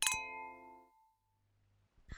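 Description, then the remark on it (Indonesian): A bright, ringing clink of wine glasses tapped together in a toast, its clear tone lingering and fading over about a second, followed by a soft, brief knock near the end. Fairly loud, no talking. “Before we continue, kita minum lagi dulu. Oh, oke. Okay. Cheers. Cheers”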